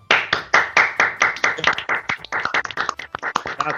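An applause sound effect added during a broadcast: a burst of dense, sharp hand claps from a group, loud and steady at first, then growing more scattered and uneven toward the end, with no voices over it.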